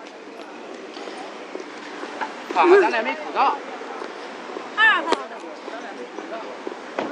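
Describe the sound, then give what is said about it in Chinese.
Steady roar of street traffic at a crossing after the light has turned red, with cars rolling past very close, the noise swelling in a few loud bursts with a braking car and honking horns, while people speak briefly over it. “嗯、但是现在已经变成红灯了，听这车声。”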